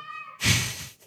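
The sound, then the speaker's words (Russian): A single cat meow, starting as a clear tonal cry and breaking into a louder, raspy, drawn-out yowl that fades after about a second. No one speaks. “Простите, дорогие слушатели, если вам слышно все, все в этом мяуканье.”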